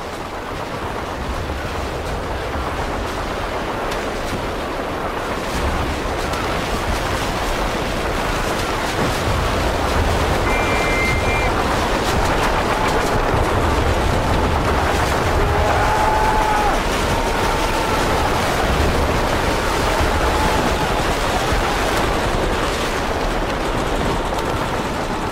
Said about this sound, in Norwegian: Og Det vi skal høre nå, er da lyd som simulerer hvordan eh, det var under første verdenskrig ute på slagmarka.